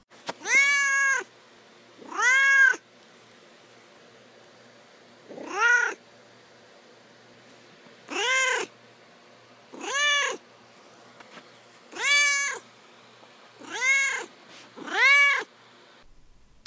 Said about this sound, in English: And uh, now we'll move on to Duarte's Corner, where I give my cat Duarte the opportunity to express his thoughts and feelings about the book.